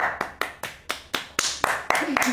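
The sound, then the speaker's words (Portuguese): Hands clap as applause in a steady, even rhythm, about ten sharp claps at roughly four per second, fairly loud, with a brief voice sounding under the last few claps. “Mas, mas não, é pra bater palma de aplaudir o seu arrombado.”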